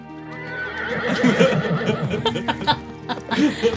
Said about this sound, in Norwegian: Var den hest? ja.